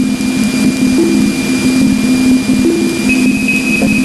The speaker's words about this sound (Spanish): El sonido más lejano que se ha podido grabar es un sonido que ha grabado una sonda mítica, la Voyager 1, que es la que más lejos está ahora mismo del sistema solar y que nos envía este sonidito que podemos escuchar y que ahora os ayudo a interpretar.